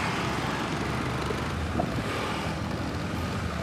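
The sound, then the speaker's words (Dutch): Dense street traffic of motorbikes and scooters in Bali at night, a continuous droning mass of small engines and rumble, steady in loudness with no voices standing out. “Je doet hier alles op de bike, op je brommertje.”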